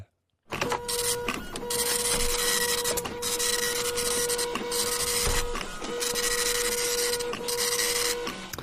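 A printer runs steadily for several seconds, its mechanical whirring and rhythmic feed sounds repeating in short cycles with brief pauses between passes, clear with no voices.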